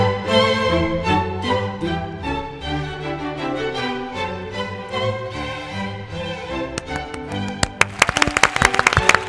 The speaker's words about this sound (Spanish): Gracias a todos por estos maravilloso y merecidos aplausos.